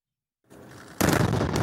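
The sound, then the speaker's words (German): A low, steady rumble builds before a sudden, loud explosive blast erupts and keeps roaring with harsh crackling energy: Israeli retaliatory airstrikes bombarding Hamas positions in Gaza at night. No voices. “Überall im nächtlichen Gaza sind am Abend die Explosionen der israelischen Vergeltungsangriffe zu sehen.”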